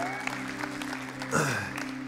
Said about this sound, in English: Can we give all of our first time guests a round of applause? Let them know we're glad they're here.